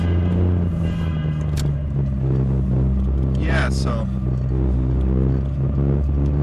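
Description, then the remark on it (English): A car's engine hums with a steady low rumble as it drives out of a deep underground parking garage, leaving from level P4 on the way to work, the sound continuous while a man speaks briefly over it. “It's Tuesday morning and I'm a little tired, but just on my way to work, leaving from P4 underground, pretty far underground.”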